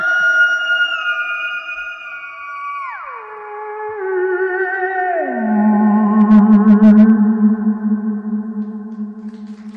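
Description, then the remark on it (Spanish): An eerie, wavering electronic theremin tone, the kind played under UFO documentaries on TV, glides downward in slow steps, layered with shimmering harmonics and a slight echo, playing alone with no talking. “O, por ejemplo, eh, siempre que se habla del fenómeno ovni, pues eh, está todo asociado y suena por debajo siempre en la tele, pues en los documentales, este sonido que va a sonar ahora mismo.”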